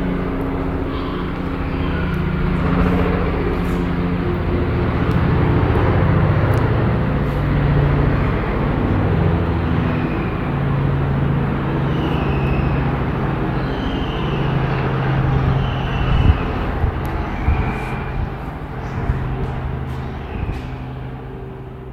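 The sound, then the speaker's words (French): A helicopter drones steadily overhead with a deep, throbbing rotor rumble, while faint seagull cries drift in and out high above the noise. “Il n'y a pas de montage lors dans tes transpoèmes et c'est fou parce que tu étais dans cette situation où il y avait le, chant euh, et un, hélicoptère qui passe et des mouettes, on dirait vraiment le morceau de, Stockhausen”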